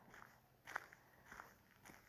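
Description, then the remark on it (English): Footsteps walking outdoors in New Hampshire on a fall September morning around 6:30, 45 degrees, at a steady, unhurried pace, each step a soft crunch roughly every half second, quiet against a still background with no talking. “I'm going to take you on a little walk with me.”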